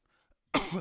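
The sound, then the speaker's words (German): A single sharp cough bursts out after near silence, a loud, rough throaty burst lasting under half a second. “Ich habe gehustet, nicht genießt, aber ich danke dir.”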